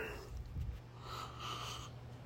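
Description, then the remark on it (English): A single drawn-out yawn, starting with a low, rough intake of breath and stretching into a long, breathy exhale, with no talking. “Pardon my yawning.”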